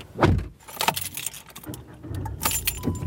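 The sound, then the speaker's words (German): Keys jangle in several quick metallic bursts as someone climbs into a car, with soft thumps and shuffling of the seat between the rattles, moderately loud. “Ich setze mich in seinem Auto.”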